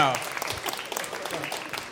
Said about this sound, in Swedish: Applåd för grabbarna!